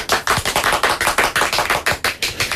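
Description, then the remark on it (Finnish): Steady, rhythmic hand clapping in Pasila, Helsinki, applauding the United States over a good news item: roughly a dozen crisp claps in quick even succession from what sounds like one or two people, with no voices. “Hienoa Yhdysvallat, jos saatte sen läpi. Hienoa, annetaan siellä aplodit.”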